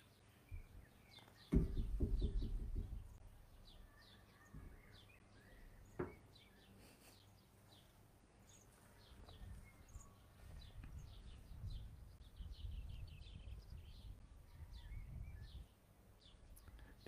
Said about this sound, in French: j'entends le chant d'un oiseau, si bref.